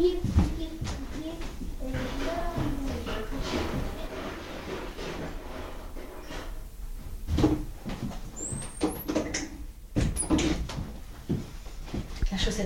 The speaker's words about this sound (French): Donc tu fermes la porte.